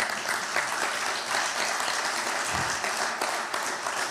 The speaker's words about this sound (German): Gebt euch selbst einen Applaus. Applaus